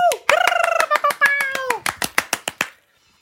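A short burst of applause from one or two people congratulating a giveaway winner, about twenty quick, sharp claps, with a high, drawn-out cheering voice over the first half before the clapping trails off.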